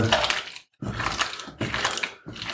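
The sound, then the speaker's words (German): Meat being kneaded inside its plastic packaging: loud, wet crinkling and squishing in three long pushes, each ending in a short pause, with no voices. “So, jetzt massiere ich das hier mal durch und dann gucke ich mal, ob ich da außer vielleicht ein bisschen, bisschen zusätzlichem Salz oder ein bisschen Sojasauce”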